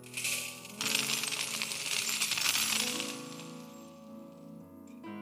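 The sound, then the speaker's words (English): Metal chains drop and rattle in a loud, dense jangle of clinking links, then settle into a fading metallic ring with a few last jingles. No one speaks. “I'm tired of these chains holding me back.”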